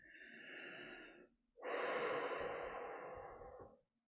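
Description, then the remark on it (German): A deep, audible breath drawn in, a brief pause, then a longer, forceful exhale like a heavy sigh. No one speaks. “Tief durchatmen, nicht zu viel erwarten, einen Schritt nach dem anderen.”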